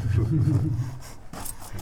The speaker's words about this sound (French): qui c'est qui a gargouillé C'est moi.